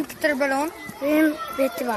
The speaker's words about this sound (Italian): E, eh, è ora di ricreazione quando arriviamo alla scuola primaria di Fierozzo.